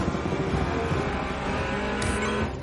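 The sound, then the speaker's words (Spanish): The powerful engine of Toretto's car roars loudly and steadily and climbs in pitch as it accelerates through a gate, with a brief high-pitched whine near the end. “Torreta acelera, atraviesa una verja.”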